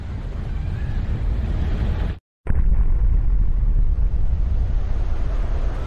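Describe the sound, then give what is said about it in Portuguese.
Loud, continuous rush of churning water and waves on a lake after a burst at its surface, a steady roar broken by a brief moment of silence before the surge resumes just as strongly. “Foi um estouro na superfície daquele lago, provocando uma onda que nos jogou para longe,”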